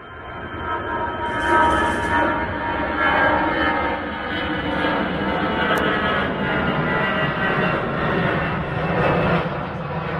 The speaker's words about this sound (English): That is the noise of an aeroplane taking off from Dublin Airport over my house last Thursday literally from our back garden. Uh, I videoed uh, that and um, I videoed a decibel meter, and the decibels uh, went up to 90 decibels on the uh, meter.